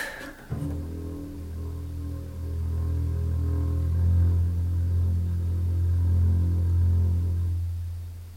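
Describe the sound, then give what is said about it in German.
A low F bowed pianissimo on a double bass, a deep sustained tone that swells gently and holds steady for several seconds before fading, with faint bow friction and no talking. “Gut, ich spiele Ihnen jetzt einen Ton, irgendetwas, sagen wir. Ein tiefes F.”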